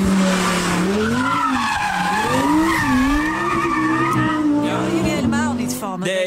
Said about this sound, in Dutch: Nee, nee, nee, Dit was gewoon een eh, lekkere, dikke V10 in de Audi R8.